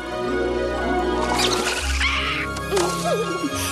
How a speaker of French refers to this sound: Mais la rivière est loin d'être calme.